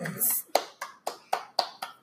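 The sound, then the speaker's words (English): A brief breathy rush, then a short round of hand clapping: about six crisp, evenly spaced claps in a quick steady rhythm, fairly loud and sharp, with no talking over them. “So make sure to applaud.”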